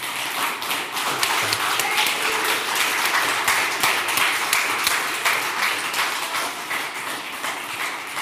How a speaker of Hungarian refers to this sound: Egy nagy tapsot szeretnék kérni az összes ellenzéki képviselőjelöltnek a közönségtől.